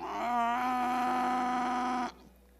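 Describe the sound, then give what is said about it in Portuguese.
A voice imitates the squealing faucet of a home washroom with one steady, nasal, whining tone that wavers slightly at the start, holds for about two seconds, and then cuts off abruptly. It is fairly loud. “Nós temos no lavabo lá uma torneira que faz barulho, né, amor?”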